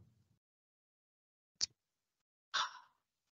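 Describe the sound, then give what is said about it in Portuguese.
A can of water is opened with a single sharp metallic crack, followed a moment later by a short breathy hiss or sip, all fairly quiet with no talking. “Para quem tá ouvindo, é água, tá, gente?”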